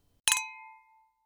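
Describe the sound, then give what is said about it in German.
Glasses clink together in a toast, a quick cluster of bright strikes followed by a clear ringing tone that fades away over most of a second. “In diesem Sinne, auf die nächsten 100 Folgen. Prost!”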